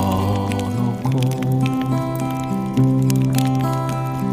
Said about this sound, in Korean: 마주 앉아서. 이 모닥불 소리예요. 무닥불 소리입니다.